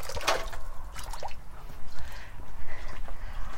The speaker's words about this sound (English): Um, it's like a straight spout that comes off the side of the flat roof. So when we get a big rain like that, it uh, pours in a like huge gout, a fountain of water off the roof.